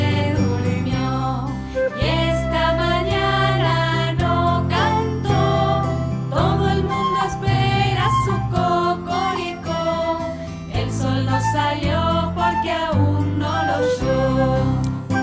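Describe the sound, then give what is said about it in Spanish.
A bright, bouncy children's song plays loud and steady, with a clear melody over a thumping, regular beat and chiming, tinkly accompaniment filling the whole stretch. “Todas las canciones de niños son plagio.”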